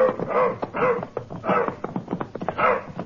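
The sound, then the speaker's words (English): A hurt, sore dog, just turned loose in the Badlands, barks and whimpers, letting out four or so strained, whiny yelps in quick succession with short sniffing and scuffling noises between them. “We switched from car to our horses and turned the dog loose.”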